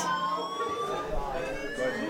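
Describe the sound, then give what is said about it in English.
A fire alarm goes off during a live show as everyone evacuates, blaring continuously with a steady, high-pitched electronic tone that holds for the whole stretch at constant loudness, with faint muffled voices underneath. “We'll be right back after the fire alarm.”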